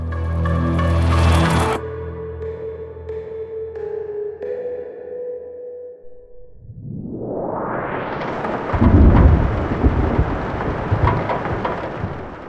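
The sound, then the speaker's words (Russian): A ringing, tonal chime fades out, then steady rain swells in and fills the space on a rainy evening at an apartment, with a deep roll of thunder rumbling beneath it partway through. “Дождливый вечер в квартире у бабушки, в которой я бывал каждое лето.”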